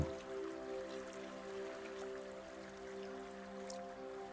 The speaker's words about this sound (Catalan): Veus com per davant teu flueix també el curs de l'aigua. Contínuament com la teva respiració. Escoltes el so de l'aigua que t'aporta una sensació de frescor i de benestar.